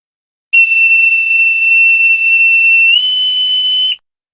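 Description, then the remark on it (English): A ship's alarm horn sounds one loud, sustained high-pitched tone for about three seconds, stepping slightly in pitch near the end before cutting off, with no voices. “It is time to ring the bells and sound the horns.”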